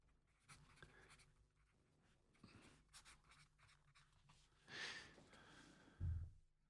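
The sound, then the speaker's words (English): Soft scratching of a pen moving across paper in short, irregular strokes as a name is written down, quiet, with a brief louder scrape and a low thump near the end; no one speaks. “Write it down. Put it with that other name.”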